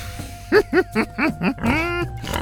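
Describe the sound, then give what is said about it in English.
A voice imitates a wild pig, Cutie Pie, snorting gleefully as she gobbles up treats: five quick, evenly spaced grunty snorts, then a longer drawn-out squealing snort and one last short one, clear with no talking. “Cutie Pie snorted gleefully as she gobbled up the treats.”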